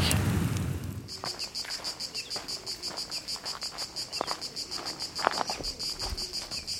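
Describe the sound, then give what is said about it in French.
Cicadas chirp in Provence in a steady, pulsing high-pitched drone that starts after a brief rush of noise and continues throughout, with a few faint clicks and rustles underneath. “Je m'allonge à l'ombre du murmure des cigales, perdu dans un coin de Provence.”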